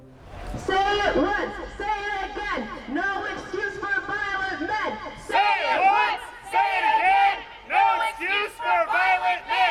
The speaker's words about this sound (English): Outside the Keller Auditorium on the 25th of June, around 50 protesters gathered to protest the University of Toronto psychology professor Jordan Peterson.